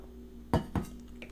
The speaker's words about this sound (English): Um, I need to take a little, little sip of water, a little water break.